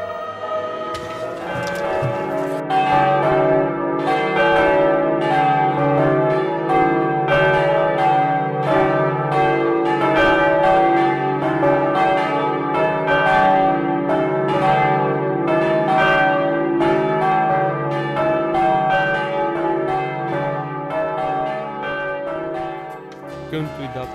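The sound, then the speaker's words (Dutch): Church bells of a Catholic church peal at Easter, rung for the first time in the year, in a continuous, dense, overlapping wash of ringing tones, loud and steady for the whole stretch, with repeated strikes layering over a sustained hum; no voices are heard. “Met Pasen worden in de katholieke kerk de klokken voor het eerst in het jaar weer geluid.”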